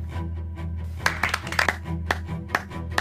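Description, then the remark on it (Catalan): A few slow, scattered, sharp handclaps, ironic applause by workers and residents in a video that went viral on social media, sounding over a steady low droning hum, with no voices. “treballadors i habitants dels prioritats feien un aplaudiment irònic a moltes conductes i necessitats”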